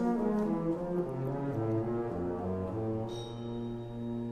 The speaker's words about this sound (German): Es sind mehr oder weniger Klänge, die von Gläsern kreiert werden, indem man am Rand reibt.